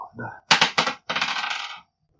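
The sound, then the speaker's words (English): Dice rolled onto a hard surface for a strength check in a game, landing on a five: a quick few sharp clacks, then a fast rattling clatter lasting under a second before stopping abruptly. No one speaks. “It does not work because I rolled a five.”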